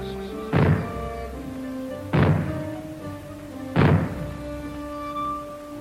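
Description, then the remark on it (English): Three loud, booming bangs go off at steady intervals about one and a half seconds apart, each with a short rumbling tail, forming a fallout warning signal. No one speaks. “When fallout is expected, you will hear three bangs in short succession, like this.”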